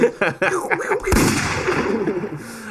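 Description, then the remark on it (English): A sharp, loud gunshot effect cracks out once, cutting across voices talking, and leaves a rough, noisy tail ringing under the continuing chatter. “Shots.”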